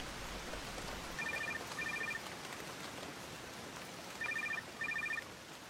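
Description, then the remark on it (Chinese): A telephone rings in two double bursts, each pair of short, bright electronic trills separated by a pause, over a steady hiss of background noise, waking a sleeper around noon. “睡梦中电话铃把我吵醒，一看表，竟然已经是中午的时分了。”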